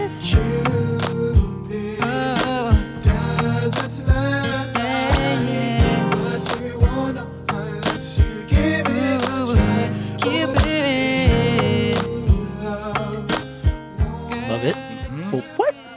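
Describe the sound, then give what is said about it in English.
A smooth R&B song with layered sung vocals over a steady mid-tempo beat, punctuated by a crisp, plinking snare that sounds like a water droplet on each backbeat. “There's like a water droplet snare in that sound.”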